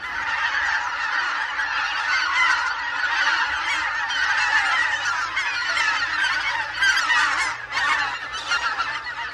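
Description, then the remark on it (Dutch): A large flock of greater white-fronted geese calls continuously overhead in flight in winter, a dense chorus of overlapping high yelping honks sustained throughout at a steady, fairly loud level with no speech. “waarom maken koolganzen zo'n geluid als ze vliegen?”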